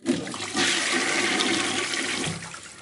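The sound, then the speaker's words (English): A toilet flushes loudly, a rushing gush of water that swells quickly and holds steady for a couple of seconds before starting to trail off. No one speaks. “You have to give a few seconds for the toilets to flush.”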